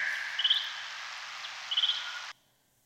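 Bat social calls, songs bats sing to each other, slowed down ten times from pitches beyond human hearing: a dense, raspy buzzing drone broken by two short warbling chirp bursts, loud, ending abruptly after a couple of seconds.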